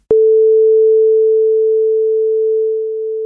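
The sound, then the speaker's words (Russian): A single steady, pure electronic sine tone holds one pitch for about three seconds, starting abruptly with a click and fading slightly near the end, with no other sounds. “Вот сейчас вы слышите такой чистый электронный тон”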